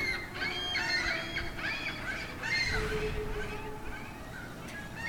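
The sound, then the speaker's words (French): Seagulls near a beach call repeatedly, several raucous cries overlapping one another over a steady background of wind or surf noise, fairly loud throughout. “Et surtout près de la plage, tu qui fait qu'on entend beaucoup de mouettes.”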